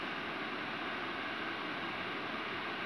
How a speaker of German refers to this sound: Achso, das Rauschen, was er im Hintergrund hört, das ist das berühmte Rauschen der Autoheizung voll aufgedreht, weil denn es ist jawohl minus 2 Grad. Ich drehe es jetzt mal wieder runter.